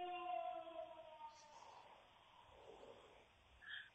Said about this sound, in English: all I know is that that siren's still going. It is still going.